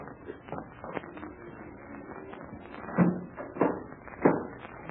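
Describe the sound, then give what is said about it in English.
A door is shut and locked: a run of soft taps and rattles, then three solid clunks near the end, with no one talking. “Captain Blaze, you will close and lock that door as it was before.”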